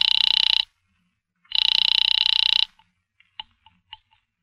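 A hotel operator rings a guest's apartment: a telephone bell rings twice in long, rattling bursts, loud, with a short pause between them, then a few faint clicks as the line goes quiet.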